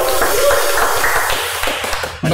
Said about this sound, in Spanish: aquí un aplauso para el oso.